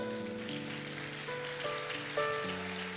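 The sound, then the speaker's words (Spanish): A crowd claps loudly and steadily for the Lord, a dense wash of many hands, while sustained keyboard or organ chords play underneath. “Dele palmas fuerte al Rey.”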